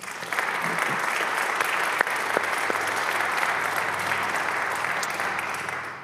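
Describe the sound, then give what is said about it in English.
An audience claps steadily for about six seconds to thank the corporate sponsors and individual supporters of an event series, a dense wash of many hands at an even level that tapers off slightly at the end. “Would you join me in thanking them for their generosity?”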